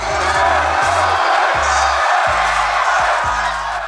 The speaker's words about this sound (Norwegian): Og 7. mai i år går gutta på scenen til et stappfullt og smekk utsolgt konsertlokale til enorm jubel fra publikum.